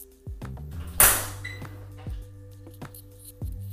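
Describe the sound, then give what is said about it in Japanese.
A studio door is opened during a recording: a sharp latch clack and rattle, then several lighter clicks and knocks spaced out over a steady low hum, with no one talking. “ちょっとレコーディング中なんですが、えー、スタジオがスタジオの式がやばくなってきたのでちょっとオープンザドアします”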